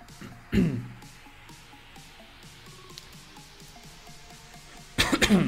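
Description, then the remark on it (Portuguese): A loud cough bursts out near the start, followed by a low murmur of background noise, then another harsh cough or throat-clearing burst near the end. “Perdão pela tosse aí.”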